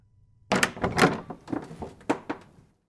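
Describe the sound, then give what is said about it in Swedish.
A door is opened and someone steps in, with a burst of clunks and rattling knocks from the latch and frame over about two seconds, then quiet; no one speaks. “Jag öppnade dörren och klev in.”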